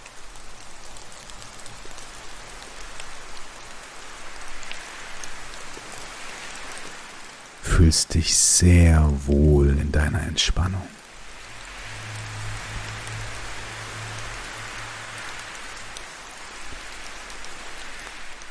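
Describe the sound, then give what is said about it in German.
Steady rain falls throughout, a continuous soft patter of raindrops, with a calm voice speaking briefly over it near the middle before the rain carries on alone. “Lauschst den Tropfen und dem Wind.”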